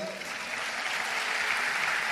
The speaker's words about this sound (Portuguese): Salve de palmas para minha esposa.